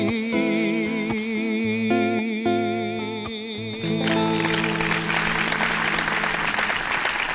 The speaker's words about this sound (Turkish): Alkış gelince hemen böyle sohbet edecekmişiz havası geliyor değil mi?